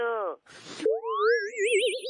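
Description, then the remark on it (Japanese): A short, goofy voicemail signal tone played on its own when a call connects to an answering service: a falling buzzy note and a brief noisy burst, then a springy boing that slides upward and wobbles. It's loud, with no speech. “発信音のなんだこいつ。”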